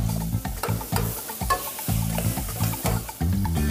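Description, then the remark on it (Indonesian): Food is briefly fried, sizzling steadily in a hot pan while a utensil scrapes and stirs in repeated strokes, fairly loud, with no voices. “Oke, kita lanjut masak. Ya, terus kita goreng sebentar.”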